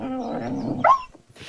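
A dachshund growls low and steadily for almost a second, then lets out a brief, higher yelping whine before going quiet, close and fairly loud, with no talking.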